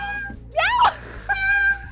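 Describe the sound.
A person mimics a cat's meow: one drawn-out, rising-then-falling mew, then a second, flatter tonal meow a moment later, both clear over a low background hum.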